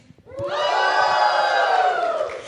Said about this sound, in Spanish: tenemos un grito de complicidad con nuestro público para recibir en vivo una propuesta de música fusión que cada noche engalana con su presencia. Este aplauso es para el grupo que ya se incorpora aquí en el escenario tomando posición.